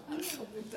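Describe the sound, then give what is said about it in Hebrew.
A single quick sneeze, fairly loud, with a sharp hissing burst, set against someone talking. “בריאות.”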